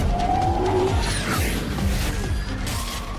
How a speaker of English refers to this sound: The hot hatch version of Hyundai's Ioniq 5, the Ioniq 5N, which is going to go on sale later this year, goes one better. As well as broadcasting car noises to the outside world, it can also screech like a jet engine.